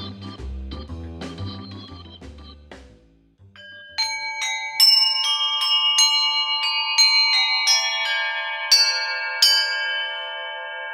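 Free-hanging bells are struck again and again, each bright, clear tone ringing on and overlapping the next as the sound builds. A short low, muffled passage comes before the bells.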